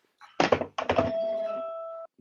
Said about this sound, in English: What, what was that? I dropped my phone. Hang on.